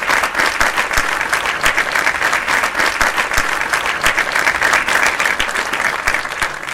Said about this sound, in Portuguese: áudio de palmas para você, palmas lentas.